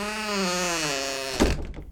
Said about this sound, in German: Dass, dass hinter der Tür da gar nichts ist. Sehr frustrierend. Ich mach die Tür wieder zu.